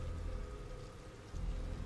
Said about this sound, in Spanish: La lluvia empapaba sus ropajes y rebotaba con fuerza en la cara del ataúd negro.